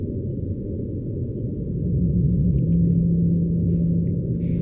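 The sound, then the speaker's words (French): Deep rumbling underwater noise with a sustained, slightly wavering low tonal moan that rises out of it partway through, the song of a pygmy blue whale of Madagascar sped up, with no voices. “Voilà, la baleine bleue pygmée de Madagascar.”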